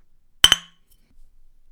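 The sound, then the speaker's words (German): Two quick, bright clinks of glasses striking together in a toast, crisp, ringing briefly before fading into near silence with faint low rustling afterward. “in Burgmui ist es so, du, du haust dreimal drauf und, und 50 Millionen Leute brüllen und schreien und, und prosten und in, in Verkirch, wenn du sagst so, eins, zwei, drei, Gsuffen!”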